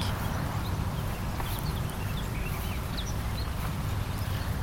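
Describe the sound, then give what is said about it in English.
Footsteps walking outdoors at a steady pace by a field near work, on a lunch-break walking route, over a constant low outdoor rumble, with small birds chirping faintly. “And I thought I'd take you with me following along in my footsteps.”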